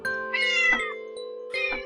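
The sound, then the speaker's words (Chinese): Kittens meowing: a few high, wavering mews in two short bursts, one drawn out and one brief, over a steady low tone, with no talking. “还有两只小猫”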